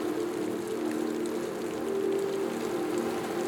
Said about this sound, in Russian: Неожиданно начался мелкий грибной дождь. Солнце светит, и дождь идет.